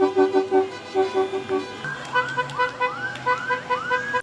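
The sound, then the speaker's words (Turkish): Car horns honk repeatedly in a steady pulsing rhythm, first short even toots, then rising, swooping horn tones over a low rumble of engines from a passing convoy of classic cars decorated with Turkish flags and Atatürk posters, celebrating the 97th Republic Day in Istanbul, led by Şişli Municipality. “Şişli Belediyesi öncülüğünde Türk bayrakları ve Atatürk posterleriyle süslenen klasik otomobillerle konvoy oluşturuldu.”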